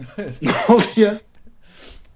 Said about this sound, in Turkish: Hapşırdım. Çok yaşa da yani. Ödüm koptu.